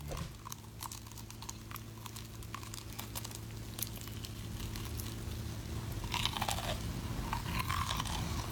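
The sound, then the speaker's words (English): Wet crunching and chewing of crispy Popeyes fried chicken in an ASMR clip, with repeated bites and crackles over a low steady hum, continuing for several seconds without speech. “it's just simply it says ASMR Popeyes fried chicken”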